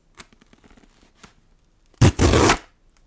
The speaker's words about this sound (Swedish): Så jag tänker att vi ska öppna detta här idag. Ehm, unboxing! Unboxing! Amazon!